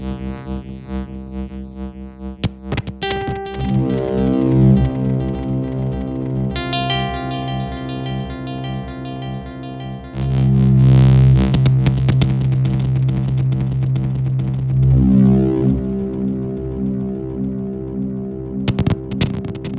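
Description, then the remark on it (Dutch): A synthesized piece generated mathematically with cosines: layered, buzzy harmonic tones that throb and shift in pitch, with a sudden louder swell midway and a few sharp clicks, sustained throughout with no talking. “Dus ik heb een stukje opgenomen voor jullie.”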